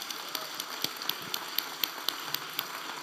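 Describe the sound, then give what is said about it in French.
An audience at an evening finale event applauds to thank a former director of Créneau Québec Épice: a dense crackling wash of clapping with steady accented beats about four times a second, as if the crowd falls into rhythm. Fairly soft, with no talking. “Oui, on peut l'applaudir.”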